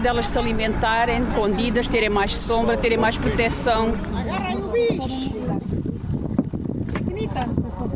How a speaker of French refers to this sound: le bateau glisse sur la lagune en 20 minutes. Il est sur les lieux de pêche, les mouchons, des îlots composés de limons, d'herbes et de coquilles d'huîtres, autrefois abondantes dans le Sado.